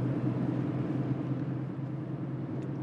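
A steady, continuous rumble of cars squeezed together in dense traffic in heavy fog, with a low engine drone of many vehicles crawling past. No voices, just the even wash of road noise throughout.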